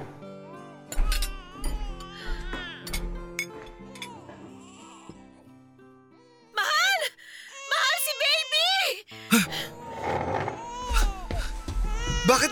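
A baby cries in loud, wavering bursts, starting partway through and continuing to the end, with steady background music underneath.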